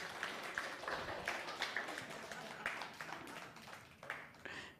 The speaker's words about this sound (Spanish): Aplausos, eso. Aplausos, aplausos.